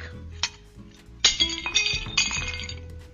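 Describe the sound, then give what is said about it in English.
Drinking glasses are smashed in a fireplace one after another, a first small clink followed by a burst of several sharp, ringing crashes with tinkling shards, with no voices. “We drank and smashed our glasses in the fireplace.”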